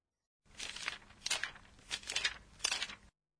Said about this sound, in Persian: این صداییه که وقتی یه کتاب رو ورق میزنیم شنیده میشه اون رو در ژاپنی چجوری توصیف میکنن؟ پرا پرا